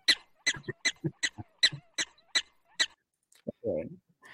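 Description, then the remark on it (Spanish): A voice imitates a reactive chihuahua's yappy barking: about nine quick, sharp yips in a rapid rhythm, fairly loud, ending with a short growly vocal sound. “Ahí está el nuestro chihuahuita reactivo ladrando.”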